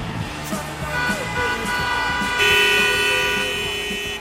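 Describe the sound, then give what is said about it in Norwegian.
Car horns honk in London city traffic: long, steady horn tones overlap above a low engine rumble, with a louder, sustained blast joining partway through and holding until the end. “London traffic, blocking the streets. London traffic, going nowhere.”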